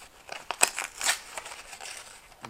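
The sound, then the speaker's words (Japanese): Crinkly plastic packaging of a magnetic hook bought at a Daiso 100-yen shop being torn and pulled open, a quick series of sharp crackles and rustles with one louder rip partway through, fairly faint overall and without any talking. “で開けてみたらこれしょぼいな”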